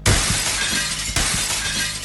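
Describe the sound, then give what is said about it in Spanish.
A glass window shatters with a loud, bright crash. The harsh, hissing clatter of breaking shards carries on for about two seconds, with a second sharp burst partway through. No voices. “Además de tener ingredientes de Alexa, también combina su Echo Show y las soluciones de videovigilancia de la familia Ring, que junto con Alexa Word es capaz de detectar sonidos, una alarma de humo o incluso cuando se rompa un cristal”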